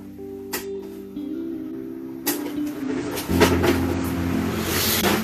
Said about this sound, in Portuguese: Ai, puxa. Ventilador barulhento.